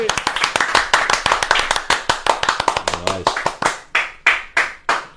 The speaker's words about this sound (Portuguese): Que palmas eh, demorada, né? Ele deu só depois.